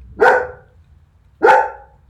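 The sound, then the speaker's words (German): Two loud dog barks about a second apart, each a sharp burst that quickly fades, with quiet background between them and no talking. “Ich war gerade meinen Schlusssatz am Sagen und du bellst.”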